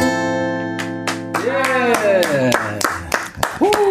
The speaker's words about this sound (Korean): 아, 바깥에 저 어, 금발의 미녀들하고 외국 분들이 왔다가 네. 박수 치고 가네요.